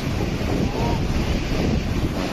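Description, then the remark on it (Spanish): A loud, steady roar of torrential storm rain and rushing water from a DANA storm, dense and unbroken from start to finish, with no voices. “Efectivamente, son efectos de la dana que han sido, fin, mucho más grandes que lo que alguna mente preclara nos ha querido vender.”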